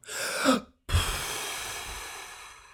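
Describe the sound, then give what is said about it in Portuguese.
A person catching their breath: a short, heavy breathy gasp, a brief pause, then a long, noisy exhale that slowly fades. No talking. “Ih, fogo, espera aí que estou sem respiração.”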